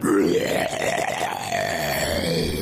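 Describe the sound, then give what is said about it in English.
Someone makes a loud, drawn-out retching and gagging noise, a strained guttural heave that continues for a few seconds with no speech. “oh, I'm so sorry you vomited at the end there.”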